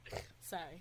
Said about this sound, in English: you just snort?